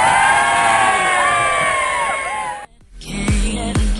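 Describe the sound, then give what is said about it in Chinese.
On the FM 92.6 radio talk show Kaixin Taxi, a loud crowd cheers and shouts with rising whoops for a couple of seconds, then cuts off abruptly, followed by a few heavy thumping bangs. “我就不喊了，把叫喊的声音让给你们。”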